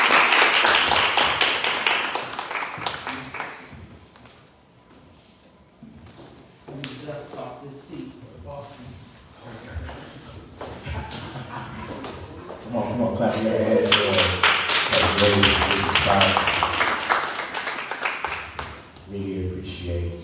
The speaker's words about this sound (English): Come on, y'all clap